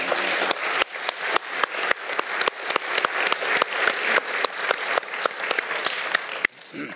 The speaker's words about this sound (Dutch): En ik vind dat dus een applaus waard.